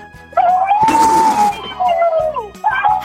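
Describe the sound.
A person imitates an elephant's trumpeting call on Park Myung-soo's Radio Show: a loud, sustained, wavering high note with a raspy, breathy blast in the middle, followed by a couple of shorter trumpet bursts.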